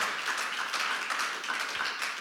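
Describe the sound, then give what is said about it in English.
A large crowd claps together in a dense, steady wash of applause that holds at an even, fairly loud level for a couple of seconds, with no voices standing out. “Come on, clap today if you're willing just to just lift it up today.”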